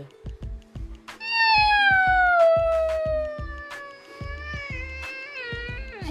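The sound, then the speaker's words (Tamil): A cat lets out one long, drawn-out meow lasting several seconds, sliding downward in pitch and then wavering, loud, over a steady rhythmic tapping beat. “அந்த பூனையும் இந்த எலியை பார்த்து”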